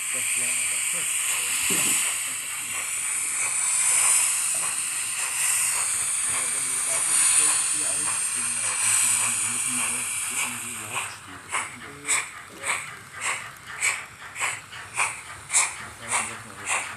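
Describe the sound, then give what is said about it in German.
A sound chip in a model steam locomotive running on a model track plays the original locomotive's recorded sounds: a steady, loud hiss of steam fills the first ten seconds, then breaks into rhythmic chuffing bursts, about two per second, like a steam locomotive pulling away. “Wenn die Minilok übers Modellgleis fährt, hört sich das so an wie das Original.”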